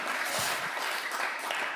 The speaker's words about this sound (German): Jemand klatscht, wenn einer klatscht, klatschen alle. Auch bei dir zu Hause.